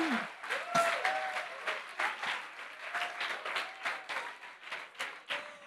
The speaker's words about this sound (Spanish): Si le va a dar un aplauso al Señor, déselo bien.